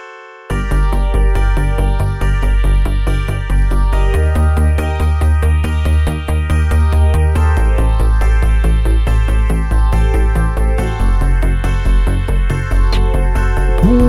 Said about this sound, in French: Allez, générique.